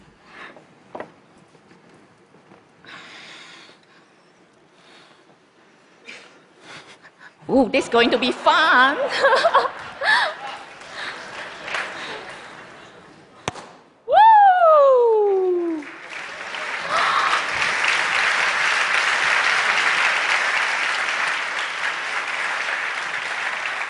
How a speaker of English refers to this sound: You could see a lot of bubbles rushing out from the champagne bottles. These are the bubbles filled with carbon dioxide, a gas that's being produced during the fermentation process of the wine.